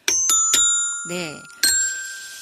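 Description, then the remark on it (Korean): Three quick, bright bell-like chime notes ring out as a quiz-style correct-answer 'ding-dong-daeng' jingle, a voice briefly speaks, then a single sustained chime tone sounds as a wrong-answer 'ttaeng' bell. Both are struck during a parenting Q&A because the answer could be either right or wrong. “이게 맞는 얘기일 수도 있고 틀린 얘기일 수도 있을 것 같아서 딩동댕도 치고 땡도 쳤는데 네.”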